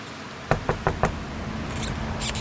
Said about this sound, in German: So, dann klopfe ich mal an die Tür von diesem schönen Bauwagen. Schauen, wer uns da erwartet.